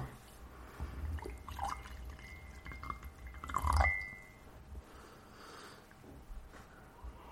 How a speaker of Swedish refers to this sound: Nu ska vi hälla upp här då.